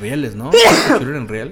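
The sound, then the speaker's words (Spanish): A man talking is cut off by one sudden, loud sneeze, a short harsh burst, before his speech carries on. “Salud. Soy alérgico a los zombies, vato.”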